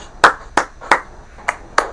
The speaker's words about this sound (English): Hey, before before before we start, big congratulations! Round of applause to the newly engaged